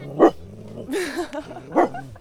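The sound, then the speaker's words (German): A dog barks twice, two short, sharp barks about a second and a half apart, with a softer whining, wavering sound in between, at a quarry lake in Kolmersreuth. “Also das Spezielle für uns ist eigentlich, dass wir den Hund halt mit hernehmen können, dass sie hier geduldet werden.”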